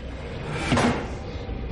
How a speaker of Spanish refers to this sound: Las cabezas de las serpientes se retiran del borde de la puerta.